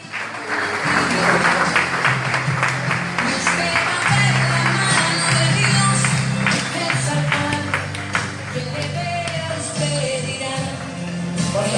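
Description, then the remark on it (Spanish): Loud, sustained applause from a crowd, dense clapping filling the whole stretch without pause, with a low droning tone underneath and no speech. “Fuertes aplausos.”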